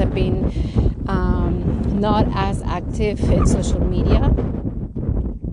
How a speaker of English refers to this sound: oh gosh it's getting a little windy so pardon the wind it's a little bit of noise because um, i'm getting uh, one of the highest points in these hills but soon i think it'll go away um, plus today's a really windy day